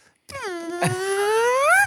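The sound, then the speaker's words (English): A voice imitates a squeezed, held-in fart: a single strained, whiny tone about a second and a half long that dips and then slowly rises in pitch, loud and nasal. “It was one of the ones that the, you could tell whoever farted was trying to hold it in, and so it just went.”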